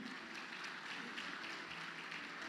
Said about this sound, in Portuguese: Só aqueles que entendem, dê um aplauso bem forte.